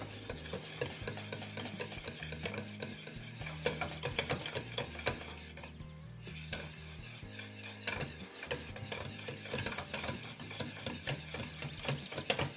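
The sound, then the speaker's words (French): A whisk scrapes and clatters steadily against a saucepan, stirring melting caramel into a thick mixture with a soft sizzle underneath, continuous, pausing briefly midway before resuming. No one speaks. “Voilà, on voit que le, l'amas de caramel au bout du fouet commence à réduire un peu, forcément, hein.”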